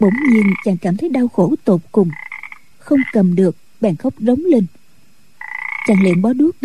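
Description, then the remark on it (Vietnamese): Frogs in a stream croak loudly and repeatedly in a steady chorus, their rasping calls rising over a man narrating in a calm voice, with bursts of croaking filling the pauses between his sentences. “rồi đi ra khỏi quán nghe tiếng ếch kêu in ỏi từ trong khe suối vọng lại”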